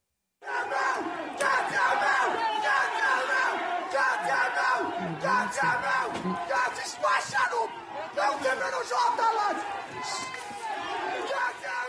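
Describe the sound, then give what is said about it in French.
A large crowd of Irish people chants and shouts anti-immigration slogans such as "Get them out" in unison at a rally, loud. Massed voices rise in repeated rhythmic bursts that continue without a break for the whole stretch. “On a pu entendre des slogans anti-immigration tels que Get them out, faites-les sortir.”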